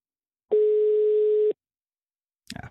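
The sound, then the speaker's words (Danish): A single steady telephone ringing tone sounds for about a second, loud, followed by silence and then a brief rustling clatter; no voices. The call, to a resident of Capellas Allé, goes unanswered. “Fælles for alle dem, vi ringer til, er, at de bor på Capellas Allé.”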